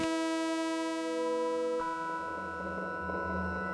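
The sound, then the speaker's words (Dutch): A steady, buzzy sawtooth-wave tone sonifying the brightness graph of a CVI star, bright and rich in overtones, sounds loud and alone for about two seconds, then turns rougher and noisier as it continues to the end. “De helderheidsgrafiek van een CVI lijkt veel meer op een zaagtand en klinkt dan zo.”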